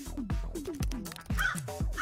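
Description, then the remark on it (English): A crow caws repeatedly in a quick, steady run of harsh, raspy calls, loud with no other sounds around it. “Crows are pretty good at recognizing people's faces and have been found to remember people for a long time.”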